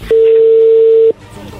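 phone call connecting

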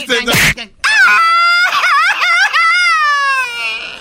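man crying loudly

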